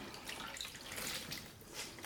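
Water drips and trickles steadily from a cleaning cloth wrung out by hand while washing a shoe, a quiet, continuous patter of falling drops with no voices.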